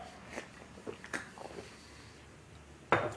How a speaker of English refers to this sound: Drinking some fizzy drink here.